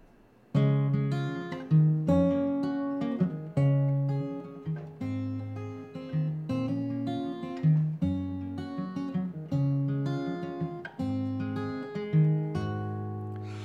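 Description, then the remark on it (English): A recorded blessing song plays on its own, a steady, rhythmic instrumental passage of layered melodic notes and sustained chords, clear and moderately loud throughout with no one talking. “And this was a song that I wrote for that.”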